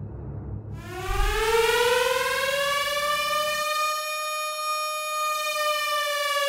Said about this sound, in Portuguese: Vocês começam de novo, novamente, a é. escutar é. aquele barulho alto de sirene.